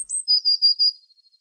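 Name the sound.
blue tit song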